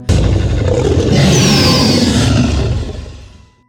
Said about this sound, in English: The T Rex ran away as fast as he could without even looking at who was roaring. All he heard was a loud dinosaur roar, and that was enough to scare him.